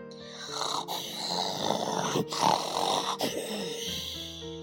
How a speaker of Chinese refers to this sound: 可是河马一动也没有动，还照样打着他的呼噜。